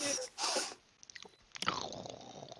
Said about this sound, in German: Okay, man hört die Katze schnurren.